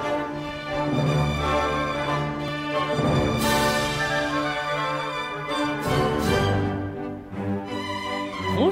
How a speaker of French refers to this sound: comme vous l'avez entendu, c'est une musique extraite du ballet de Don Quichotte